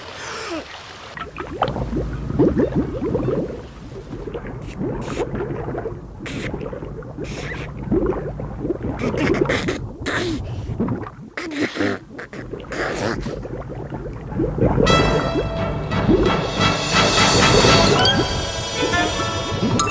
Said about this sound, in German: Dann lief er zum See, holte tief Luft und glitt ins Wasser.